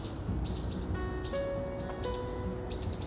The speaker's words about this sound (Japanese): あ鳥さん帰ってきた